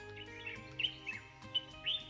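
A small bird chirps several times, short high-pitched tweets spaced irregularly over a soft, steady background hum, fairly quiet overall.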